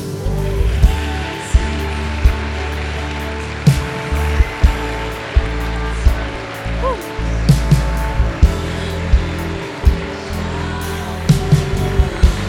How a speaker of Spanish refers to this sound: Y le damos la bienvenida a esta casa. Levanta un aplauso a Dios.